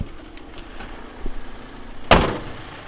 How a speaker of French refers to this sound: repart avec son petit camion.